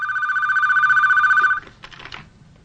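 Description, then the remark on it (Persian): A telephone rings loudly with a steady, trilling electronic tone for about a second and a half, then cuts off as it is answered, followed by brief faint clicks and handling noises. “از خواب بیدار میشه و تلفن رو جواب میده”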